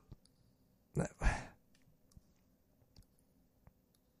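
A quick pair of clattering keyboard clicks, followed by a few sparse, faint key taps over a quiet background.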